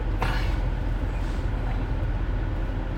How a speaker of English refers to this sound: Sorry, I'm going to try to fit my truck into this spot here.